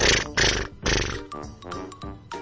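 A giraffe's nighttime humming: a few deep, breathy grunting bursts in quick succession, then softer, droning tones with faint ringing overtones, fairly loud, with no voices.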